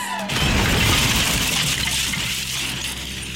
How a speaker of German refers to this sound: Jetzt lag sie auf dem Boden, inmitten tausender Glassplitter. Welche unsichtbare Faust hatte die Vitrine zertrümmert?